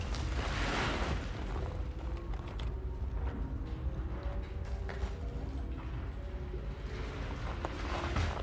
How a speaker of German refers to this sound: Vorsichtig schaue ich über den Abgrund ins Treppenhaus hinunter. Durch die Bewegung rauscht eine Ladung Putz in die Treppenhausschlucht, wird zu Staub und rieselt unten auf die Fragmente des Erdgeschosses.